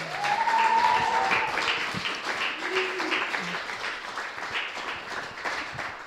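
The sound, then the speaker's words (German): Sustained applause from a live audience after a music trio's performance, a dense wash of many hands clapping that stays steady for several seconds, with a few cheers and faint voices mixed in before it slowly thins. “Nochmal einen Applaus für die drei.”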